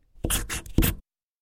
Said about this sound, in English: and now she's writing on wood. This is the sound of her writing a capital A,